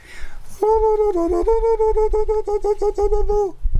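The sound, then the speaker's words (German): A person imitates a wolf howl, holding one long, steady vocal tone for about three seconds, with a brief dip in pitch early on and a slight wavering throughout. It is fairly loud. “Ah, und dann hat und der da, Wolf gedacht, da ist ein anderer Wolf.”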